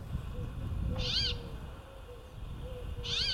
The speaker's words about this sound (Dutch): Eh, brambling heet hij in het Engels. Kijk, dit hoorde je. Ja.